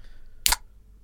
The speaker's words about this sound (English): That's the sound of the seventh can of Red Bull in 24 hours. Don't believe I, it. He I just pressed a button then, and that was the sound. Oh, yeah, it's my Red Bull soundbite, that, isn't it?